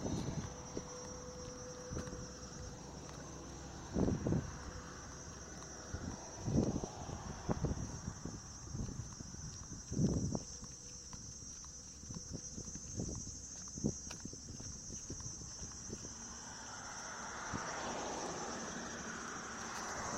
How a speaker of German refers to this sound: das sind tatsächlich hier dieses fiepsende Geräusch irgendwelche Tiere, die in den Bäumen sitzen. Zikaden, was immer. Sehr penetrant.